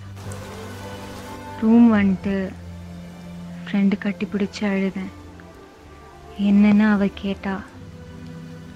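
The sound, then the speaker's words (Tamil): Steady rain hisses in the background throughout, a constant wash of falling drops beneath a woman speaking in short phrases with pauses between them. “என்னோட சத்தத்தையும் தாண்டி மழை சத்தம் அதிகமாக இருந்துச்சு”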